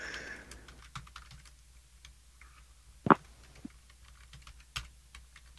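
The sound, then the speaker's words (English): Irregular typing on a computer keyboard, quiet, with scattered soft key clicks and one sharper, louder tap near the middle; no one speaks. “damn, I can't type today.”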